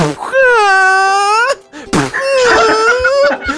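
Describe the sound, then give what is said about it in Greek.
A voice imitates the wailing of burning mushrooms: a high, drawn-out wail in two sustained moaning bursts separated by a short pause, loud with a wavering pitch. “Άλλο μανιτάρια έτσι μαντάρ διάφορα, διάφορα μεγέθη, κάνουν και διαφορετικό λίγο ήχο. Αλλά αυτό τα ακούμε έτσι.”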